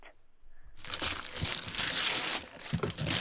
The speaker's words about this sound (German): Hier werden Geschenke aufgemacht.